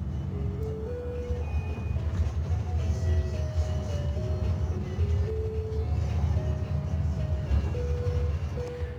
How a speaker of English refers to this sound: You can even hear it on some of the buses, too. All you have to do is ring the bell to get off at the next stop, and you're reminded of what a small world it is.